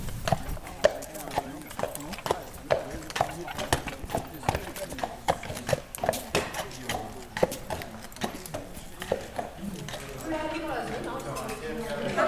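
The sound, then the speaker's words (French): Horse hooves clip-clop as the horses are asked to walk, an unhurried, steady run of sharp knocks on hard ground, with murmuring voices in the background that grow a little clearer toward the end. “on leur demande de marcher on va faire que du pas aujourd'hui.”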